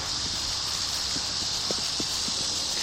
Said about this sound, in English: We begin at Ellender Farm, a 3,200 acre sugar plantation. You can hear the wind in the cane.